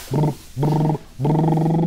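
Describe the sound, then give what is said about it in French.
A voice does a lip trill, the "vroom" voice exercise imitating a small toy car, with low belly breathing: three buzzing, low-pitched bursts, the first two short and the last longer, held at a steady pitch. “c'est de faire un exercice du vroom, qui s'appelle le vroom. C'est vous mettez les lèvres comme ça”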